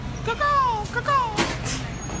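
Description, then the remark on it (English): Busy ambience of an airport terminal at LAX, with a steady low rumble, a faint woman's voice talking in the background with falling pitch, and a brief hissing burst near the end. “And if you hear a random lady talking in the background, that's because we are in LAX.”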